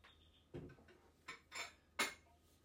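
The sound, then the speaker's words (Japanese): Dishes being wiped and put away, with a few soft clinks and clatters of ceramic, the sharpest knock near the end, over a low steady background hum. “これは拭いてしまっちゃうのね”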